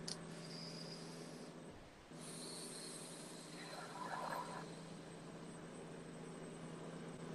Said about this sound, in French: Voilà, il y a un petit bateau qui va passer parce que je suis à côté de la mer, en fait, euh, sur la rivière.